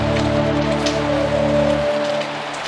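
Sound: rain falling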